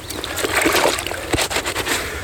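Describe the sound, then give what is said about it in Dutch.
An object is lowered into water, with a steady wash of splashing and sloshing and one sharper splash partway through. No one speaks. “Nou, dan zijn we even eh, te water letten en dan kunnen we hem meenemen.”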